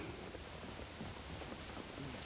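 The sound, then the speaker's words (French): Steady rain patters on pavement, a dense, continuous hiss of drops with no distinct rhythm, fairly soft and even throughout, with no voices present. “Les yeux comme un barrage brisé je pleure sous la pluie, sur le trottoir, pour tout.”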